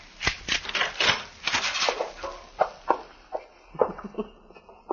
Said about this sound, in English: Yes, but his key's in the keyhole on the other side of the door. Well, these keys are made so you can push them right out.